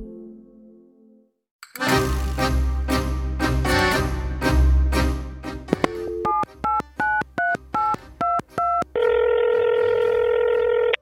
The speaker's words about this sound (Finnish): Eräänä kevätpäivänä Moskovassa soi puhelin. Siihen vastasi Venäjän presidentti Vladimir Putin ja soittajana toisessa päässä oli Yhdysvaltojen presidentti Joe Biden.